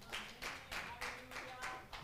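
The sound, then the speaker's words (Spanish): A church audience claps together in a steady, rhythmic beat, each clap landing about three times a second, applauding the Lord during a morning service. The applause sounds soft, with no voices over it. “Un aplauso más al Señor esta mañana, amén.”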